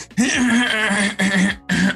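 A loud throat clearing in three raspy, voiced bursts: one long rumbling rasp, then two shorter ones in quick succession, with no talking around them.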